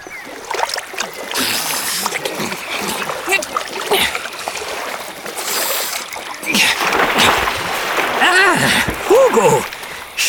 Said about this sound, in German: Und während ich so suchte, sprang auf einmal ein Biber aus dem Wasser.